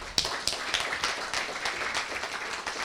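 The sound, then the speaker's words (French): A church audience applauds the children, steady dense clapping from many hands that carries on evenly for a few seconds, with a few sharper claps standing out from the crowd. “Est-ce qu'on peut applaudir tous ces enfants”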